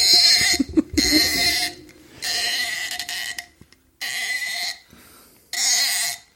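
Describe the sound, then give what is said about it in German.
A cheap waiter's corkscrew twists into a wine cork, giving five loud, creaky squeaks in uneven bursts with short pauses between them. The shrill, whining squeals sound almost like bleating. “Mein, mein Kellnermesser ist so schön, ist ein billiges Kellnermesser, das irgendwo mal einer Lieferung beilag, aber das quietscht so schön, wenn ich das in den Korken nehme.”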